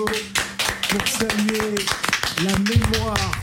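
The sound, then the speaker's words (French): Applause in the Africa Radio studio after a musical performance: a steady patter of many hands clapping, with voices calling and cheering over it throughout. “Je vais des applaudissements dans ce studio.”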